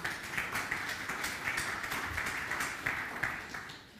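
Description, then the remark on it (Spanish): A crowd applauds the staff team at a talk, steadily for a few seconds, dense overlapping claps forming a continuous, moderately loud wash of sound with no talking over it. “Un aplauso para el equipo de staff, quien está por ahí.”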